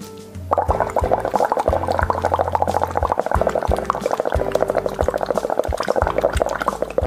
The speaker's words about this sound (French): nous allons faire des bulles. Il vous faut pour ça un gobelet rempli avec de l'eau à moitié.